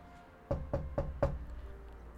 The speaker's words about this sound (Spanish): Enseguida cerró la puerta y se fue a acostarse en el lecho de la abuela, esperando a Caperucita Roja, quien, un rato después, llegó a golpear la puerta.